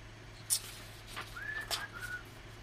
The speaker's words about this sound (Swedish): Jag sitter och visslar.